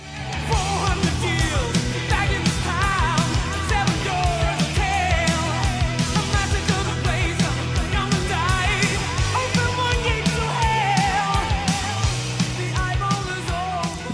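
A loud, dense hard rock song with driving drums, distorted guitars and a high, strained lead vocal, playing continuously at full volume with a steady, pounding beat.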